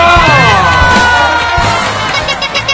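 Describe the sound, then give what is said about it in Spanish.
A loud, steady burst of recorded crowd cheering and applause played for a singer, with many voices whooping and shouting together over dense clapping, sustained for a few seconds without letting up. “Este aplauso es para ti. Es, es, grabado y todo lo que quieras, pero es muy sentido.”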